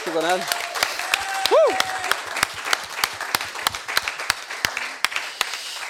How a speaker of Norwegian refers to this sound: skal vi ta så gi dem en stor applaus?